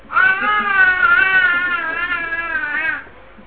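A baby screams and cries in one long, loud, wavering wail lasting about three seconds, with no talking around it.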